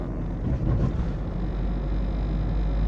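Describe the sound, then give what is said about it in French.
A steady, low road rumble inside a moving car while driving, with a constant droning hum and no voices. “dans la voiture, en roulant.”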